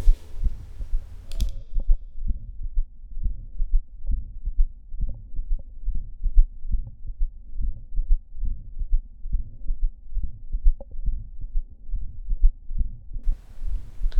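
Heart sounds through a stethoscope at the apex: a steady run of low, muffled beats with a soft humming Still's murmur between them and a faint extra third heart sound after the main beats, continuous.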